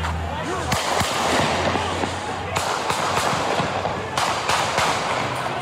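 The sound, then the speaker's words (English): Several sharp shots from an AR-15 rifle, reportedly fired by Kyle Rittenhouse in Kenosha, Wisconsin, crack out loudly at irregular intervals over a constant wash of outdoor noise and faint background voices. “That's the sound of the AR 15 rifle reportedly fired by self described white nationalist Kyle Rittenhouse.”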